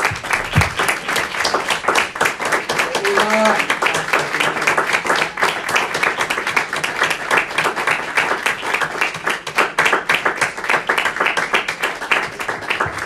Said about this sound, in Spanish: Le damos un aplauso más al Señor, hermanos.